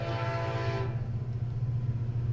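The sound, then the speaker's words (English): A train rumbles by with a steady low roar, its horn blaring with a harmonic tone for the first second before fading into continuous rolling rail noise. “It's that train, dude.”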